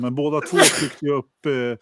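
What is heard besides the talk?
sneeze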